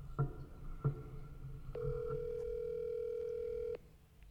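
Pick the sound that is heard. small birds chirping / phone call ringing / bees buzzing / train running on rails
phone call ringing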